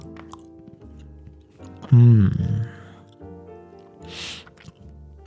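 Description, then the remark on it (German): Chewing of raisin-nut chocolate, with wet mouth clicks and a crunchy smack near the end, broken by a loud, satisfied hum. “Ich würde es gerne mal aufgreifen, weil ich gerade diese unfassbar leckere Traube Nussschokolade habe.”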